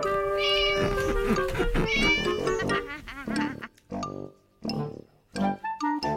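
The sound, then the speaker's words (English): Wilbur, a black cat, meows over and over, a dense run of loud, high, overlapping cries at first, then shorter separate meows with brief pauses between them. No one speaks. “Winnie lived in her black house with her cat Wilbur.”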